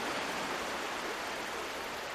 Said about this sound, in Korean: 까닭 없는 상실감이 해일처럼 밀려오는데 거친 파도 소리, 바람 소리 틈에서 닥터백의 목소리가 들리는 것 같았다.